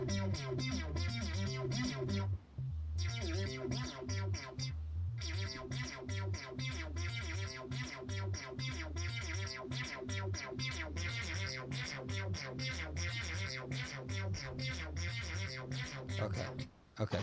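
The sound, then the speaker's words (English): An uploaded synthesizer patch with a little sequencer is loaded and played back continuously, with a pulsing, rhythmic bass line and bright, effected tones layered over it, loud and steady, with a couple of brief dropouts. “yeah, so you can you can go through and you know, and there's all these different patches in here. Look at all these patches.”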